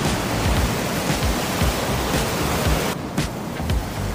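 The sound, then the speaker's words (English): Loud, steady rushing river water roars, a dense continuous wash of churning sound with no voices, briefly thinning near the end. “I mean, if I fell over into that river, I'm gone.”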